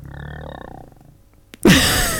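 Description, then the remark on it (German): A low, gurgling stomach growl rumbles and wavers for about a second, fades, then a sudden loud, rough burst of noise takes over to the end. “Mein Magen. Dein Magen ist auch noch da. Jetzt knurr nochmal.”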